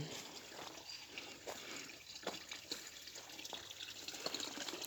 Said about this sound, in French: Le bruit de l'eau qui m'appelle. Il y a un petit étang et un tuyau d'arrosage qui coule.